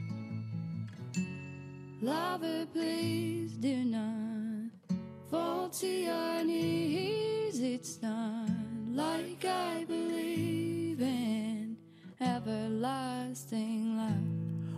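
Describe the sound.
A gentle folk song plays steadily, a clear female voice singing over strummed acoustic guitar, fairly loud and close throughout with only brief dips between phrases.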